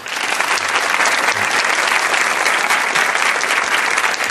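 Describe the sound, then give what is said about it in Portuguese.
A studio audience at a debate show on animal captivity claps steadily for several seconds to welcome three guests, a dense, even wash of many hands with no breaks and no voices standing out. “Pode aplaudir antes de saber o nome deles.”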